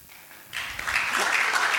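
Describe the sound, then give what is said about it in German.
A crowd breaks into applause about halfway through, a dense wash of many hands clapping that swells quickly and stays steady and fairly loud to the end. “Ich komme doch mal dafür. Applaus für”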